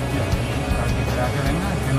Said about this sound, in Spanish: Pues eso, que los que aquí estoy en el pabellón Juan Hidalgo, estoy en el coche